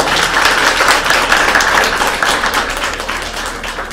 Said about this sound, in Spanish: Aplauso, por favor, para la compañera.